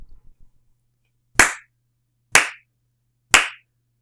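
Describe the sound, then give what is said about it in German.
Three sharp, loud hand claps spaced about a second apart, a slow deliberate clapping rhythm, in an otherwise quiet setting after a few faint rustles. “Äh, ich habe gerade eben geslowclapped.”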